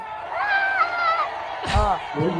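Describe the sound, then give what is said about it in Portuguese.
A short canned crowd sound effect, played by pressing an applause button during a live stream: cheering with rising and falling whoops over a dense background of crowd noise, and a sharp burst of noise near the end. “Eu adoro apertar aplausos.”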